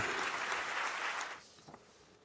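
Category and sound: crowd, thunderous applause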